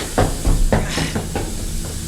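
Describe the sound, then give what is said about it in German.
Water spills steadily from an overflowing bathroom sink whose drain is plugged with a chamois cloth, flooding the whole bathroom, a constant hissing rush broken by several irregular, louder splashing surges. No voices are heard. “Das ganze Badezimmer steht ja unter Wasser. Das Waschbecken läuft über.”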